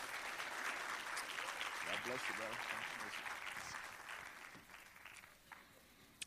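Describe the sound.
A church audience at Pathway claps their hands in the morning to welcome a guest minister, a dense, steady wash of applause that gradually fades over several seconds, with a few voices murmuring underneath before the clapping dies out.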